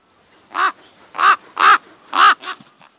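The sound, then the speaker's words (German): A raven caws five times, harsh and fairly loud, with short pauses between calls; the final caw comes quickly after the fourth and is shorter. No voices. “Ein Rabe geht im Feld spazieren.”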